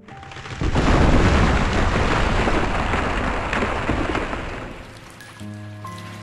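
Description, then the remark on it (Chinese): A loud burst of thunder breaks into a steady roar of heavy rain as a strong wind rises, the downpour hissing broadly for several seconds before easing slightly as a soft sustained tone rises at the end. “打雷了，下起了大雨，轰隆隆，狂风也刮起来了，树枝。”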